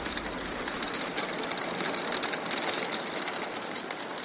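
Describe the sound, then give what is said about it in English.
A hailstorm pelts down in a dense, steady clatter of countless rapid impacts, a continuous rattling hiss that stays loud and even throughout, with no voices. “It, it's a hailstorm, okay? I recorded a hailstorm.”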